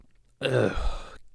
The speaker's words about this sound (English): You just burped right in front of my face. Er, sorry, I had a bad choco. I had some uh, Chipotle last night.